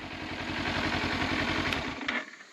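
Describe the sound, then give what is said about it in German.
A motorcycle engine idles with a steady, throbbing low putter while the rider is stopped before a water hole on a bush-lined track, deciding where to ride through; the engine then cuts out abruptly near the end, leaving quiet. “Während ich anhalte, um zu überlegen, an welcher Stelle ich durch das Wasserloch am besten mit dem Motorrad durchkomme, fallen mir große Dunghaufen mitten auf dem Weg auf.”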